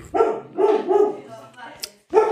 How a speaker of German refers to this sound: ich hoffe, dass mein Hund jetzt mal schnell aufhört zu bellen